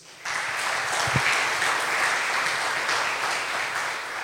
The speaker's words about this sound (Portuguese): E eu quero que você aplaude o Senhor por isso.